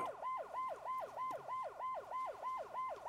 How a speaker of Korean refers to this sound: 바로 그때 경찰차 사이렌 소리가 들렸어요.